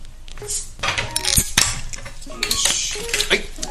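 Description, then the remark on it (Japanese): Several bright clinks of glass and tableware ring out, scattered over a few seconds with faint background murmur, like glasses touching in a toast. “反省してる俺とまず乾杯でそうですね、ま反省を癒しますかね反省反省まあまあまあまあよいしょ”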